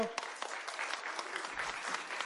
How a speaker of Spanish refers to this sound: A ver, el aplausómetro. Para acá. Aplauso para nuestro otro amiguito. Aplauso para nuestro amiguito.